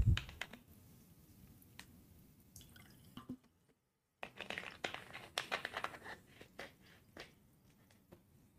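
A coin is flicked up with a thumb, giving a string of sharp clicks and light taps at irregular intervals, with a brief silent pause midway and no voices.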